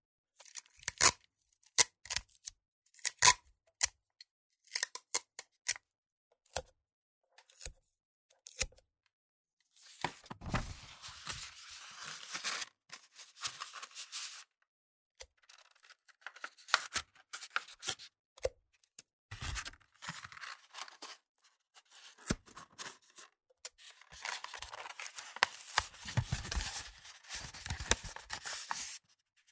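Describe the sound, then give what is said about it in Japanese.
Three pieces of tape being pulled and torn off a roll to make a thicker pipe, a crackling rip repeated in separate bursts with short pauses between, fairly loud, no voices. “今度は今までよりも太いパイプを作る。テープを3枚取って”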